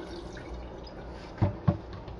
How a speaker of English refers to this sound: kind of spill a little bit of water out anyway.